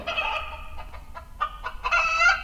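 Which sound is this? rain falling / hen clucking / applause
hen clucking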